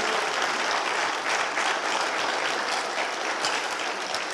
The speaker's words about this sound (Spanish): By the way, los músicos tremendos. un, aplauso a sus músicos. Tienen músicos de mucha unción y mucha calidad.